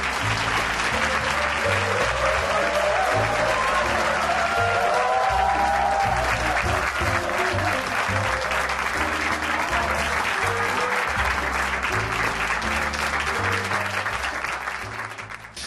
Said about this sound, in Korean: 자, 오늘의 주인공 최경주 선수가 나올 때 큰 박수로 환영해 주십시오. 최경주 선수입니다.